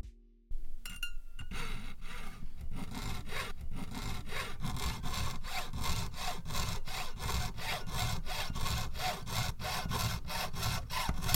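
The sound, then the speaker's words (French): A jeweler's piercing saw (bocfil) cuts through metal in quick, steady back-and-forth strokes, about three per second, to begin work on a ring or plate, continuous for around ten seconds with no talking. “L'outil que j'emploie est un bocfil. C'est le nom euh, professionnel de la, de la scie. Euh, on vient couper le métal pour euh, commencer à forger, à travailler sur une bague, sur une plaque.”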